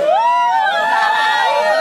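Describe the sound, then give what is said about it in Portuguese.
Fans of a band scream together in a loud, sustained burst of high-pitched shrieking, many overlapping voices wavering and sliding in pitch for nearly two seconds. “Beleza, aí, aí as fãs, deu, deu um grito aí, as fãs da banda.”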